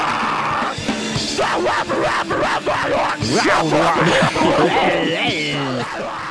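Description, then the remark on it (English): A raw, strained voice screams and wails a sliding melody, loud and continuous for several seconds, recorded on a digital camera in mono, a murky, distorted lo-fi recording with a hissy, crowded sound. “They would just have uh, someone recording it on like a digital camera in mono, sounding like this, and then they would put it on MySpace's tracks.”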